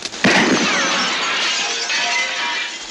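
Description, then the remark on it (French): A stray bullet hits a window pane, which shatters with a sudden loud crash, followed by a few seconds of bright tinkling and scattering glass shards, with no voices. “Le, flingue, il n'y a plus de balle, il jette le flingue, mais il y avait encore une balle qui, tape dans une vitre hors champ et il se met à pleuvoir.”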